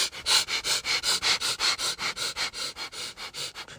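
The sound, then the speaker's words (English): Rapid, rhythmic panting breaths through the nose like a dog panting, a breathing exercise with the belly going bigger and smaller, about four sharp sniff-like bursts per second, steady, with no talking, easing slightly toward the end. “And then do it from your nose, okay? Not from your mouth. Do it from your nose.”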